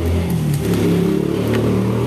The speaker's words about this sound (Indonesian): motor kenceng banget anjing motor.